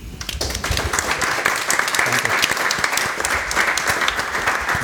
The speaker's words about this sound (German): Vielen herzlichen Dank. Und ich glaube, die hatten Applaus verdient.